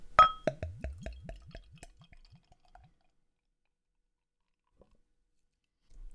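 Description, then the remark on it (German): Beer glugs from a bottle into a glass, pouring a clear, amber-colored beer: a bright clink, then a quick, steady run of about a dozen gurgling glugs that slow and fade out after a couple of seconds, followed by near silence. “Mal einschenken.”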